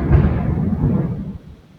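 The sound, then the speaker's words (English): A deep, rolling rumble of thunder as a storm starts, heavy in the low end, swells at once and holds for about a second before fading away; no one speaks over it. “Did you hear that thunder?”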